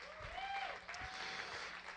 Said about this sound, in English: These are those that have been a part of the leadership. Amen. Give them a hand clap. Praise God.